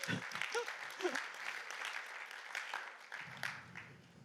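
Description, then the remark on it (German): Steady applause as people give one another a round of applause, a dense patter of many hands clapping for about four seconds, with a few faint voices mixed in near the start and end. “Da können wir vielleicht einen Applaus geben, euch gegenseitig.”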